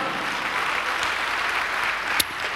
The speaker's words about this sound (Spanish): Fuerte el aplauso para Cristo, hermano.